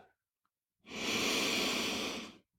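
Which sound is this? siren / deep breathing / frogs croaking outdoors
deep breathing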